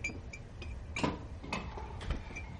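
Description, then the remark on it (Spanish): A spoon clinks and scrapes inside a cup as instant coffee is stirred in a house, the cup just heated in a microwave, with soft ticks followed by three louder metallic strikes about half a second apart, fairly quiet, with no voices. “Lo remueve.”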